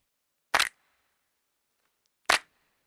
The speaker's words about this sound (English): Clicks. There it is. And mouth clicks. So if I mute, this is just my mouth. doing that, and hand clicks, layered up with that, and then claps.